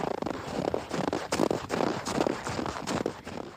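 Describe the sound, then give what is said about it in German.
Footsteps squeak and crunch through deep snow, several steady steps in a slow rhythm, each a gritty, compressed squeal with no voices around. “Hier zum Beispiel, das sind quietschende Schritte im Tiefschnee.”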